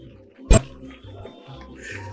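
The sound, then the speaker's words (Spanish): A dog lets out one sharp, loud bark, then quiet, low rumbling background noise continues for the rest of the moment. “Suéltate, perro chimuelo. Suéltate.”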